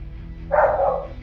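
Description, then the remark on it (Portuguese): A single short, high-pitched bark or yip from a small dog, moderately loud, over a low background hum with no talking. “cachorrinho de quem?”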